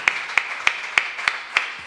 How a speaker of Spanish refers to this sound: Bueno, un pues fuerte eh, abrazo y un, fuerte aplauso,